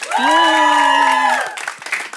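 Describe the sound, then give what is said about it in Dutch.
A quiz show team, team Pommelien Thijs, cheers after being told it has three points: a short burst of sustained, high-pitched shouting voices lasting about a second, then dropping into scattered crowd noise and clapping. “Want team Pommelien Thijs mag beginnen juichen, want ze heeft drie punten.”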